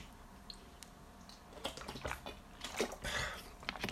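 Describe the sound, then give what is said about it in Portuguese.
Someone takes a sip of water, with soft wet swallowing and gulping noises over a few seconds, quiet and without any talking. “Eu tive que ir buscar água. Vou beber um gol.”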